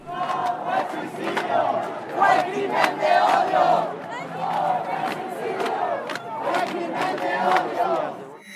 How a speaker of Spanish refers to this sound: La investigación de la Fiscalía Local ha sido puesta en tela de juicio por los colectivos de la diversidad y durante las marchas por la memoria de Ociel se escucharon consignas como esta.